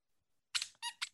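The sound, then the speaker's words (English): A person makes a quick, high-pitched squeaky vocal noise in three short bursts, imitating a buzzer during a quiz, loud after a moment of near silence. “I got to work on my squeaky noise.”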